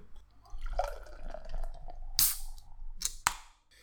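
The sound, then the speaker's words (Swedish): Beer glugs and trickles as it is poured into a glass, gurgling unevenly for a couple of seconds, followed by a few sharp clinks or pops near the end. “Eh, jag hällde nog inte upp den så bra.”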